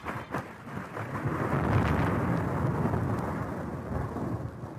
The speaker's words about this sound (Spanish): En ese instante, el cielo rugió tan fuerte que las paredes temblaron.